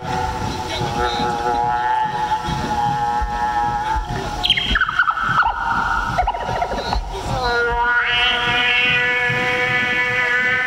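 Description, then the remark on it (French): The pipe ('le tuyau'), an instrument physically halfway between a saxophone and a kazoo, plays loud, droning, buzzy tones with a horn-like quality, holding steady notes that swoop downward midway, wobble, then jump back up to a higher sustained pitch. “C'est suffisamment bizarre pour toi, ça C'est un instrument qu'on appelle the pipe, le tuyau.”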